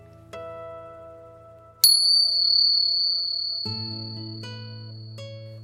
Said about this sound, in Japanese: リラックスできる鐘の音を聞いていただいてからスタートです。